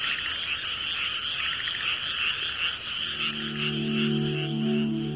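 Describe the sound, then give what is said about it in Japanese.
A dense chorus of frogs in Japan croaks steadily from a distance, many voices overlapping into a continuous trilling wash, with a lower droning tone joining in partway through. “遠方から聞こえてくるカエルの合唱を聞くときくらい、日本の自然という感の深い時はない。”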